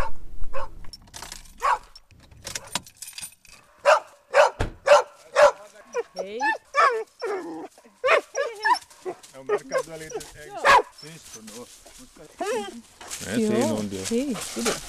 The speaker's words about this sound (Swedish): Redan före jag stannar bilen så hör jag hundskall och som kattmänniska med viss respekt för hundar hinner jag även bli lite orolig.